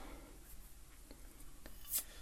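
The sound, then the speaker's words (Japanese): Quiet scratching and faint tearing as a stuck seal is picked and peeled off a gin bottle, with a few soft crackly ticks and one sharper high rip near the end. “こういうものの質が全然違いますよねやっぱジャパンに慣れてるとさこういうのそのこういうひどいものにをねたまにこう出会うとさあ日本ってすごいなって思うよねよし開けましたこのジンを飲んでみよう”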